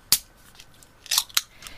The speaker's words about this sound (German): Ich werde es jetzt mal aufmachen. Das ist eine Dose. Moment.